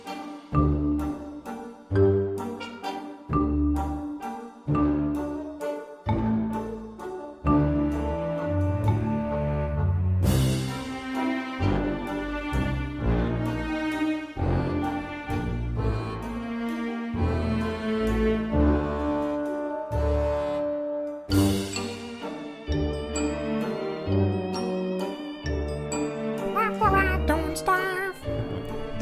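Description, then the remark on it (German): Quirky game music with a muted trumpet playing a nasal, quacking melody over a steady, bouncing rhythm of bass and percussion, loud and continuous, with no one speaking. “dieses Geräusch, habe ich übrigens gelesen, wird von einer gedämpften Trom Trompete gemacht.”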